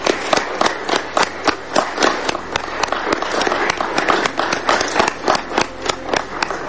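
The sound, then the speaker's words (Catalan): A crowd applauding steadily at the close of the final municipal council plenary session of the legislative term, dense overlapping claps with sharper individual claps punctuating the wash, sustained at a fairly loud, even level throughout with no talking. “Bé, aquests són els aplaudiments finals del ple municipal que tanca aquesta legislatura.”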